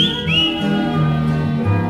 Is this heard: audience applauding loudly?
no